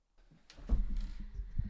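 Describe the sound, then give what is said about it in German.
A door being opened by someone answering the doorbell, with a few soft clicks and rattles followed by low, muffled thumps as it moves, fairly quiet and with no voices. “erst gegen sein Mikro gestoßen ist und jetzt die Tür aufmacht.”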